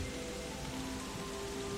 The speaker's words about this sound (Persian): میخوایم با هم قدمی بزنیم بر زیر باران که این باران رحمت های خداوند هست که برای شما جالی میشه